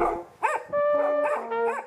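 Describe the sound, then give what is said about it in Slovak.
A scent hound (farbiar, a hunting tracking breed) bays and barks at the 36th SPZ cup trials for farbiars, a memorial event organized by the Považská Bystrica–Púchov–Ilava area of the breeders' club. Several drawn-out, tonal howling barks follow in quick succession, loud and clear with no talking. “Farbiare na stope”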